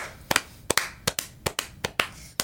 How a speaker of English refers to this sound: Yeah, round of applause.